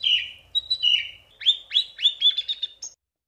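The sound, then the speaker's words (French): A man imitates blackbird song by whistling with a small object held against his teeth, a run of fluid, warbling phrases and quick rising chirps, clear, with no talking. “Il n'y a que lui ou il y a des oiseaux qui répondent Il n'y a que lui. C'est du merle.”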